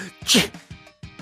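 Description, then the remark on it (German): A single sharp, explosive sneeze bursts out, loud and breathy, followed by brief mumbling voice sounds as someone talks right afterward. “Gesundheit.”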